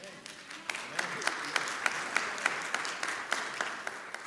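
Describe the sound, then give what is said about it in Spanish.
A crowd applauds again after being asked for better applause, dense overlapping handclaps with sharper individual claps standing out at a regular beat, fairly loud and sustained throughout. “Vamos a probar de nuevo a ver si los aplausos salen un poco mejor.”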